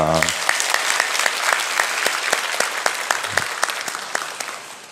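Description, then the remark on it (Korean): A church audience applauds steadily as an applause of glory offered to God after prayer during a dawn worship service, dense overlapping claps forming a continuous bright patter for several seconds, with a brief voice at the very start. “우리의 귀한 예배와 또 찬양을 통하여서 영광 받으시 우리 하나님 앞에 영광의 박수 올려드립니다.”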